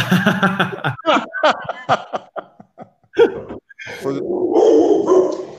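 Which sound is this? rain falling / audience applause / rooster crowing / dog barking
dog barking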